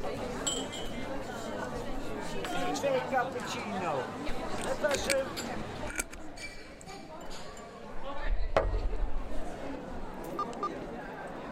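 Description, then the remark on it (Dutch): Busy theatre foyer ambience with a babble of overlapping chatter, sharp little clinks and knocks scattered throughout, and a brief burst of low rumbling thuds toward the end. “dit is het juiste moment om naar een compilatie van mijn geluiden te luisteren, die ik heb opgenomen in de foyer.”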